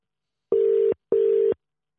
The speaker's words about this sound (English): It's ringing. It's ringing.